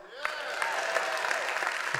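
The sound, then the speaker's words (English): A small group of about five people claps unevenly for about two seconds, the sharp, scattered claps never swelling into full applause, while a voice can be heard faintly underneath. “For the five of you that clap, the rest of you wake up, please.”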